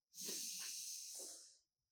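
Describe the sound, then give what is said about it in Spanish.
A single long, deep breath rushes out as a loud airy hiss lasting about a second and a half before fading, as a person breathes deeply during a chest-opening breathing exercise. No one speaks. “Vamos a ir abriendo el pecho, respirando profundo todo el aire, exhalando profundo todo el aire.”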